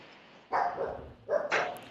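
A dog barks twice in a studio, two sharp, fairly loud woofs about a second apart, with a low background hum and no talking.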